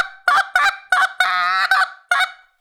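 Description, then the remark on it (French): A brass mouthpiece is buzzed like a kazoo, sounding six short, honking notes with one longer wavering split tone in the middle; loud and rasping, with no voices. “Puis là, tu vas te servir de ton appôt comme un gazou.”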